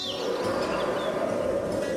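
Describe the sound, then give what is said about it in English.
Soft birdsong with a few scattered chirps on a sunny day, over a steady, continuous background hiss of outdoor ambience. No one speaks. “The sun's shining, birds are singing, and all feels right in the world.”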